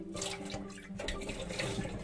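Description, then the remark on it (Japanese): Steady running tap water splashes into a sink while a pot that was used to heat milk is scrubbed and rinsed to remove protein residue before it cools, with faint clinks and shifting splashes throughout. “この鍋ってさなんかこのタンパク質というかなんかあの洗いにくいものが残るから嫌ですよね卵を熱した後のお鍋とかもなんかすごく洗いにくくて嫌いお鍋というかお皿とかもね嫌いなんですけどなので冷たくならないうちに今チャちゃっと洗って”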